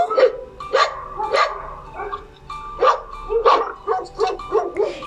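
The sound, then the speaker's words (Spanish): A dog barks repeatedly in quick bursts, about ten sharp yips and barks with brief pauses between clusters and no talking. “Luego su amigo el perro ladró.”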